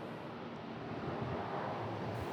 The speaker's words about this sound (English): Emerald waves crash on coral encrusted shores, and the setting sun slants through the dust to give the cityscape of Mogadishu a beautiful and ghostly appearance.